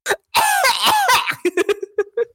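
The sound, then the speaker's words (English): A person breaks into a harsh coughing fit: one quick cough, a long raspy hacking stretch, then a string of short, rapid coughs trailing off. “but she can't Husband. because she keeps coughing.”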